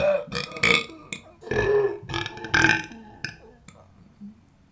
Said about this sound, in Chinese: 我就想打嗝。